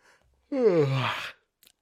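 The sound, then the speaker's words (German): A single long, drawn-out yawn, voiced and breathy, with the pitch sliding downward before trailing off into a soft exhale; nothing else is audible around it. “Guck mich an, nicht gähnen.”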